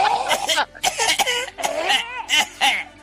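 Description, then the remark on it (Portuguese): Several loud coughing bursts come in quick succession, mixed with voiced, laughing sounds and throat noises between them, with no clear speech. “É, mas a tosse já reclamavam, né?”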